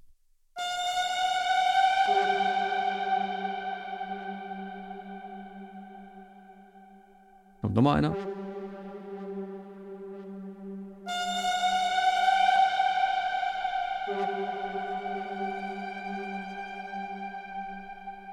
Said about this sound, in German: Ähm, dann sind so eigene Signature-Sound, die ich designt habe mit Dark Zebra, sind diese Alarm-Synth-Bands. Hier zum Beispiel.